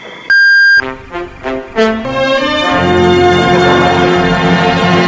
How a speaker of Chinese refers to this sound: 韩秀半步颠为您报时。